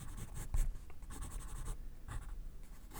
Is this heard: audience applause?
no